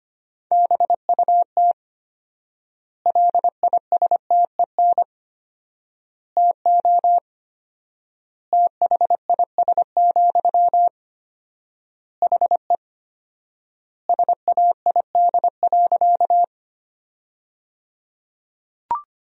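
Morse code at about 25 words per minute, sending sentences made from the 400 most common words with four times the normal word spacing: a clear, steady single-pitched tone keyed in rapid dots and dashes, with word groups separated by long pauses. No voices.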